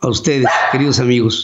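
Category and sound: animal, dogs barking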